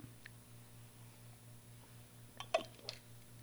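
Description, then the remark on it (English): A person takes a quick sip of water, a few soft wet mouth and swallow clicks near the end over a steady low electrical hum, with no talking. “Excuse me, just having some water there.”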